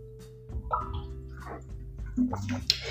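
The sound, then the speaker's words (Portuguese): Someone takes a sip of water: a few soft, wet slurps and swallows with small clicks, quiet and unhurried, with no talking. “Vou tomar um pouquinho de água aqui, peraí.”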